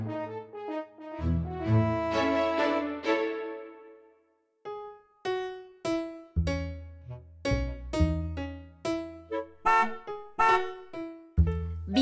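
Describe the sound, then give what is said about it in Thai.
A long, loud horn blast is followed by a quick, rhythmic run of short honks in a bouncy, musical pattern, bright, with no talking. “ปิ้นปิ้น ปิ้นปิ้น บีบแตรกำกำแบแบบีบแตรดังลั่นระวังนะจ๊ะ หลบหลีกให้ทันปิ้นปิ้น”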